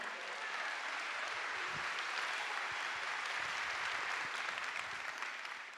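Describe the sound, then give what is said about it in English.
A crowd applauds steadily to welcome a guest from Hope Chest in Colorado on stage, a dense wash of many hands clapping at once that holds at an even, fairly loud level throughout without breaks or voices. “So could you guys give Nate a round of applause?”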